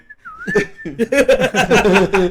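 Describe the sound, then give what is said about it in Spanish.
A person imitates a sweet potato vendor cart's steam whistle: a thin steady tone with a brief dip, then a loud, shrill, wavering blast held for over a second. “Ese es un carrito de, camarote. de camote.”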